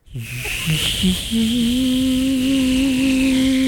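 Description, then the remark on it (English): A voice imitates a loud PlayStation cooling fan being turned on: a sustained breathy whooshing hiss with a steady, low droning hum underneath, building after a few short sputters and holding loudly to the end. “No, man, I'm just turning on my PlayStation.”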